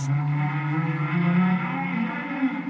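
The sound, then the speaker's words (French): A bus engine rumbles, a steady low droning hum whose pitch shifts slightly as the bus pulls in and slows at its final stop in Pioneer Town, with no voices over it. “Quelques heures plus tard, le bus arriva enfin à Pioneer Town, terminus.”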